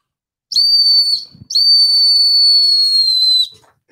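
Two loud, shrill blasts from a cyber whistle, a short one followed by a longer sustained one, steady high tones with bright harmonics, with no talking.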